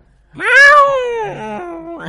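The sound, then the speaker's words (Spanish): A cat lets out a loud, drawn-out yowl lasting nearly two seconds, rising then sliding down in pitch, with no talking over it. “Me aturdió con ese grito que hizo.”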